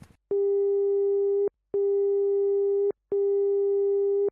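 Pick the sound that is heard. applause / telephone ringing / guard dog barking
telephone ringing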